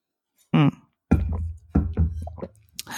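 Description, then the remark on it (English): Someone drinks water, taking several wet gulps and swallows in an uneven rhythm, with brief pauses between sips. “I'm high y'all and I'm starting to get caught in my hoop I gotta drink some water”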